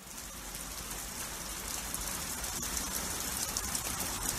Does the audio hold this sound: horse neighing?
no